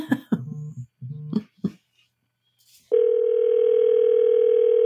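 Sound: telephone dial tone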